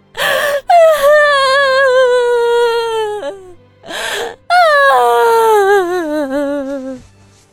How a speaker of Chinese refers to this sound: 哭声尖到了一个人类无法到达的高度